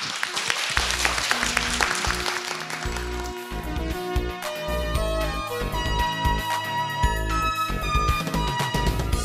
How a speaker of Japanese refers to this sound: もう一度大きな拍手をお願いいたします。